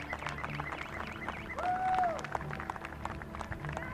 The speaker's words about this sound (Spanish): Fíjense allá a lo que es el aplauso a todas las pilotas.